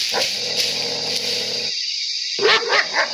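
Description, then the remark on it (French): Harsh barking calls of a monkey ring out over dense, buzzing jungle ambience, then after a brief lull a few louder, closer barks burst out near the end. “Un singe qui aboie Mais ça alors, mais, mais un singe qui aboie, mais ça existe ça”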